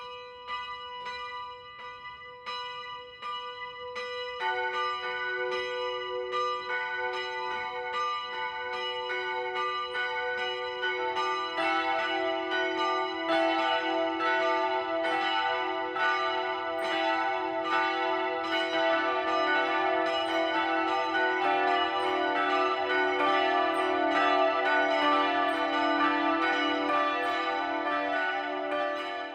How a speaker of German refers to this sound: Es ist 12 Uhr. Das Mittagsläuten kommt heute von der evangelischen Kirche St. Lukas im oberpfälzischen Regensburg.